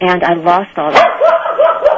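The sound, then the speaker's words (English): A dog barks a few times, short sharp yaps overlapping a person who is talking. “Yeah, sorry about my dog.”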